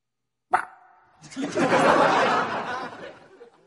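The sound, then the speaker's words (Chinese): A black dog barks once, sharp and sudden, then a longer, rough, noisy burst follows for a couple of seconds before fading out. “哇，狗叫了。”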